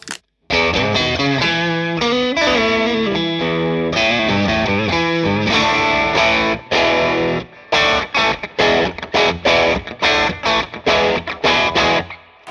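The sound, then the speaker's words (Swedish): An electric guitar played through an overdrive pedal, set at full volume with a little less drive, plays sustained distorted chords, then shifts to choppy, rhythmic stabs with brief gaps between them, loud and without any voices. “Nu är det på full och lite mindre drive.”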